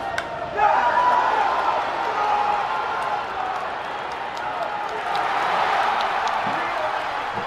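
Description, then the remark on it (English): A big crowd of Braves fans at Marlins Park in Miami erupts into a roar at the final out of a baseball game, a dense, sustained wall of cheering voices that surges up within the first second and stays loud throughout, with scattered shouts and claps. “That's uh, quite a roar there in Miami from the Braves fans that were there.”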